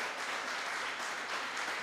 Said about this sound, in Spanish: Él está vivo, hermano. Él está vivo. Dale un aplauso porque Él está vivo.